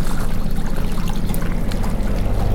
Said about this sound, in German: Das ist ein alter Baucontainer. Völlig verrostet. Der kleine Kran hebt ihn nach oben. Das Wasser läuft heraus.